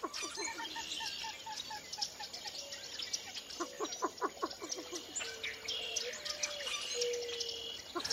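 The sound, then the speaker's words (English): A February dawn chorus at the edge of a pool with rushes: marsh birds call over a steady chorus of clicking northern cricket frogs, a least bittern's soft repeated notes and the sharp calls of a common moorhen darting in and out of the rushes, with no talking. “Along the water's edge, common moorhen darts in and out of the rushes, and a least bittern calls above a chorus of northern cricket frogs.”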